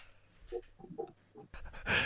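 Dogs yap and bark a few times in the background, short and fairly faint, before a burst of louder rustling, breathy noise takes over near the end.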